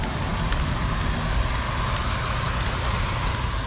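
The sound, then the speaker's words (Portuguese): A loud, steady mechanical roar from the air-conditioning exhaust vent of the rooms housing the UFMG internet and computer servers, blowing continuously with a deep rumble underneath and a broad hiss on top, unchanging. “Esse barulhão aí, eu acho que é o respirador do ar-condicionado de onde ficam os servidores da UFMG, os servidores de internet de computador, né?”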